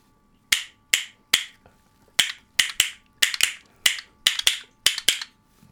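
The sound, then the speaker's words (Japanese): Classic red and blue castanets clack sharply about a dozen times, crisp, in an uneven rhythm with several quick double clicks; no voices. “はい、えー、正解はですね A が新しい山桜で作った方で B が皆さんが知っているカスタネット、うんうんはい、赤と青のカスタネットでした”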